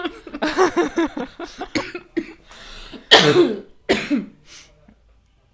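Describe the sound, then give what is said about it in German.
A voice laughs briefly, then breaks into a short coughing fit: two or three harsh, loud coughs in quick succession, trailing off into quiet. “da kommt da wieder der Hustenanfall.”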